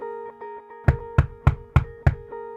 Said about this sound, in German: Zuerst hat es geklopft. An den Türen. Nicht geläutet. Geklopft. Und nicht etwa so ein scheuches Pöppeln. «Hallo, ist vielleicht jemand daheim?» Nein, nein, so klopft nur das FBI. Mindestens.